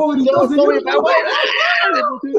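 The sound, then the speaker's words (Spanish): A voice imitates a frightened scream, as of someone scared when the octopus appeared while watching Spider-Man: a loud, wavering, high-pitched cry that rises and falls for a couple of seconds, continuous with a brief laughing, speech-like quality. “Se puso a gritar.”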